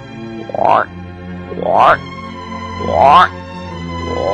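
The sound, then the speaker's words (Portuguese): A small toad gives three loud, rising croaks spaced about a second apart, each a short, throaty swell, over a steady low droning tone in the background. “aceite esse pequeno sapo como símbolo de nossa amizade.”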